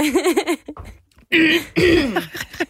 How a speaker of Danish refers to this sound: Du skal lige huske at hoste af, inden vi går på.